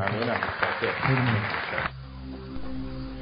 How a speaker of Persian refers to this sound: متشکرم تشویق گرم آقای دکتر